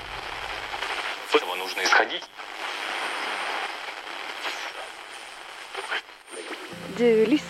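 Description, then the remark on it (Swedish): Steady radio static hisses throughout as a dial is turned, with brief warbling whistles and snatches of garbled signal breaking through before a tone emerges near the end. “Du befinner dig i radioskugga men du vill höra bruset så du skruvar på radion.”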